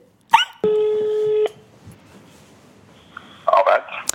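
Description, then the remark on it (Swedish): A quick beep, then a steady electronic telephone tone holding for nearly a second, followed by quiet line noise and a brief cluster of dialing or ringing blips near the end, as a phone call is placed to Bert Karlsson. “Ja, men då ringer jag Bert.”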